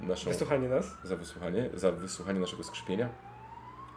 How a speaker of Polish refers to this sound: To ta karetka już jedzie. Karetka już idzie po te plecy.